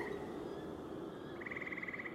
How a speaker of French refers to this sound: des éclaboussures, un ronflement régulier et quelques cris. Ce sont les crapauds, dit Georges. Il doit y avoir une mare tout près et les grenouilles batifolent dedans.